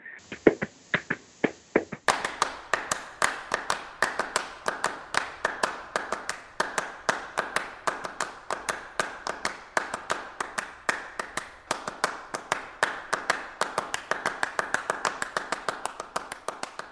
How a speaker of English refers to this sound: But in the meantime, we we started playing clapping music, and in fact, we opened a, a concert in San Francisco with clapping music and uh, you know that piece, don't you?